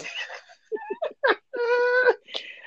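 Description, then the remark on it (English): A male cat meows several times: a burst of short, chirpy cries, then one long drawn-out wail, and a final brief mew, with no talking. “And he started again.”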